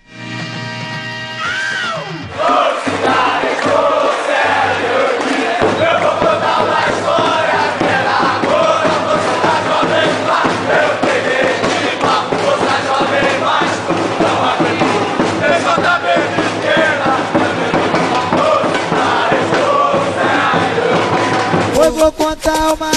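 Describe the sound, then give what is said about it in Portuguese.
A large crowd of football supporters chants loudly and continuously over a pounding funk beat, the dense roar of voices sustained for the whole stretch after a brief quieter opening. “E essa aqui vai para o rubro-negro Caio Belandi, que cornetou né, na primeira edição, falou que sentiu falta é, dessa batida.”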